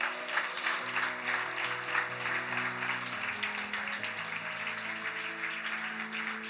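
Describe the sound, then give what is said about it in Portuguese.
An audience claps for Jesus, a steady, dense, continuous wash of applause lasting several seconds, with sustained keyboard or organ chords held underneath and shifting pitch partway through. “Aplauda Jesus.”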